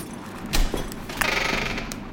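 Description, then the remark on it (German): A heavy dining hall door opens: a loud metallic clunk, a second sharp clack, then a steady scraping, faintly squeaky drag as it swings, with no voices. “Die Tür zum Essenssaal geht auf.”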